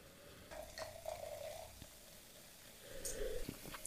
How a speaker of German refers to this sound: Oh ja, es ist aber auch die Frische zeigt sich jetzt nochmal besser, wenn man nochmal frisch aufschenkt und mhm. ein bisschen was im Glas hat.